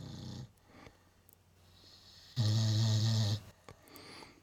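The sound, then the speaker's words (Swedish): A dog snoring at home, lying a little way from the speakers: a short rasping snore at the start, then a longer, louder rumbling snore a couple of seconds later, with soft breathing between. “Iris, en av våra svansbarn, för det, vi har fyra svansbarn. Hon ligger och snarkar”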